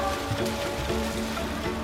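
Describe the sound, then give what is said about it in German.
Steady, continuous watery splashing and sloshing with a reverberant wash in an indoor swimming pool during a children's swimming lesson, fairly loud and even throughout, with no voices standing out. “So, und jetzt raus aus dem Becken, duschen und umziehen.”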